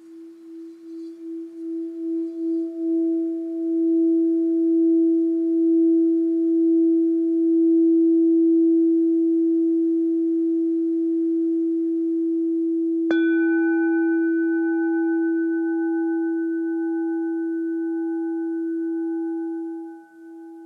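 A solar plexus chakra crystal singing bowl is rubbed, swelling into a steady, pure humming tone; partway through a sharp knock adds brighter ringing overtones before the sustained note fades out. No voices.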